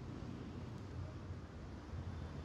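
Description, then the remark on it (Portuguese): A steady, dense roar of traffic on Avenida Paulista, with buses, motorcycles, cars and people, a heavy low rumble, continuous, with no distinct individual vehicles or voices standing out. “A Avenida Paulista é sempre assim: ônibus, motos, carros, pessoas.”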